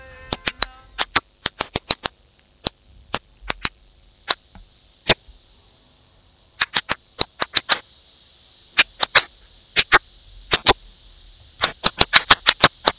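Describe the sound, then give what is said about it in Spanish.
Sharp, dry clicks from a stressed plant, ultrasonic sounds made audible, as documented by researchers at Tel Aviv University, arriving in irregular bursts and scattered singles like rapid ticking or crackling, over a faint steady high-pitched whine. No voices, the clicks fairly loud. “Esto es una planta gritando.”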